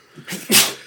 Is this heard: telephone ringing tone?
no